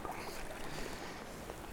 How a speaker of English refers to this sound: It's wonderful to be on the water again and paddling again.